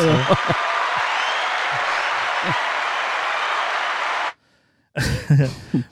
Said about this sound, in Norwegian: Jeg gir fem hundekast til han Foley-artisten, iallfall. Ja, ja. Han fortjener en liten applaus.